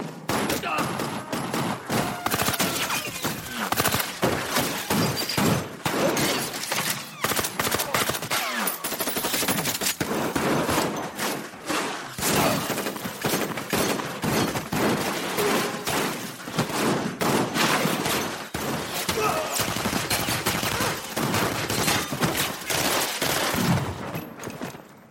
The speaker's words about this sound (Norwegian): Så alt foregår i rytme. Til og med skjøtinga foregår i rytme. Mm. Jeg skal få høre en liten skyteutveksling som går eh, på en veldig fin groove.